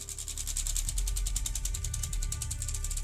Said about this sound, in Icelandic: En þennan morgun, 1. september 1983, síndi flettiskiltið sem hjekk yfir komusalnum að velinni myndi senka. Klukkan varð fimm minútur yfir sex. Þá fór sjálfvirt flettiskiltið aftur á stað.